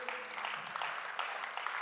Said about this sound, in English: Uh, at this time, uh, I also want to dismiss our kids and our student uh, kids into kids ministry. Clap for them as they're leaving.